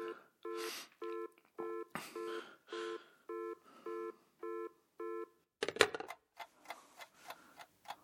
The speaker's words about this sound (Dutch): telefoon gaat.